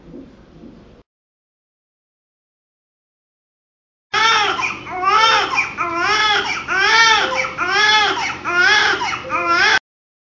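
A newborn baby cries loudly in a string of high, wavering wails that rise and fall, each cry following quickly on the last, after a brief murmur and several seconds of silence. These are the baby's first recorded sounds after birth, while the just-cut umbilical cord is being tied off.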